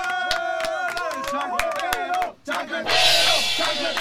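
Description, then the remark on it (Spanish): A crowd whoops and shouts loudly, then after a brief lull breaks into dense, steady audience applause that carries on to the end. “Hemos esencialmente en una semana duplicado los números y ese reconocimiento es para ustedes con un aplauso chancletero.”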